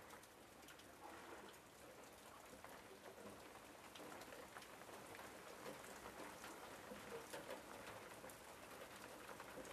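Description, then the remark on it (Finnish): Steady rain patters continuously on a surface, a dense hiss of countless drops with slight swells in intensity and no voices, on a cool Finnish summer day, with a little wind rustling in the trees. “Sateen tommonen ropina ja vähän tuuli kahisee noissa puissa.”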